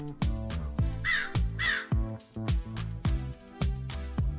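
crow cawing

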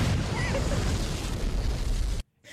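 explosion sound effect

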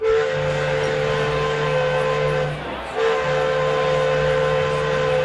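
steam train whistle

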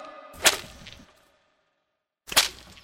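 whip lashing

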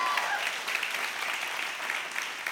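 audience applauding

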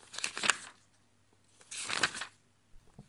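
paper pages being turned

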